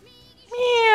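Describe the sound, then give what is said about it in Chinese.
A single drawn-out cat meow, starting as a faint thin tone and then swelling into a loud, bright, tonal cry that holds steady to the end. No one speaks over it. “那是什么？是谷仓里的猫在伸懒腰吧？”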